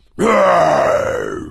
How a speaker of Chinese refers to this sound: 狮子站在山峰上发出了怒吼。